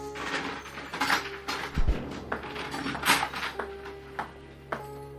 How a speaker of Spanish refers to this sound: Cuando el ruido de la reja del calabozo que se abría lo hizo reaccionar.